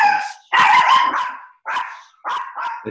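A dog barks loudly, a handful of sharp, yelping barks in an uneven rhythm with brief pauses between them. No one speaks.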